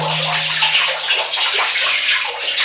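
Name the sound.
running water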